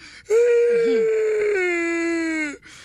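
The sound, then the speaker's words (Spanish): A voice imitates a boy crying with one long, loud, drawn-out wail that holds steady for about two seconds, then drops slightly in pitch before breaking off. “Y ya se va llorando el del mariachi.”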